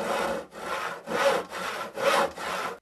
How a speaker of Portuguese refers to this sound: Cerraram cada uma das mobílias ao meio.